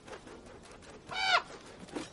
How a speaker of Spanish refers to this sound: En Invernalia un cuervo entra volando en el patio y se posa sobre un carro.